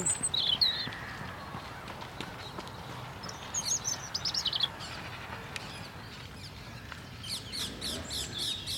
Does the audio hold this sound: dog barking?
no